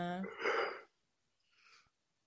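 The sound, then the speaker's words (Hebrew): A single loud cough bursts out with a rough, throaty onset, then a brief pause and a softer, breathy follow-up exhale. “אוקיי, סליחה, אני לרוב שם על מיוט כשאני משתעל.”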